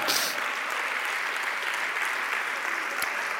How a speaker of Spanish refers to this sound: A su nombre, gloria, dale un aplauso al Señor, amado hermano.